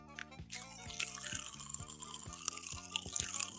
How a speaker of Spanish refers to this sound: Aquí está todo lo que es el pop rock, el original caramelo que eh, explota en la boca. ¿ah? A ver. ¿Caché? Ya está explotando. Como que sonó así, está, demasiado.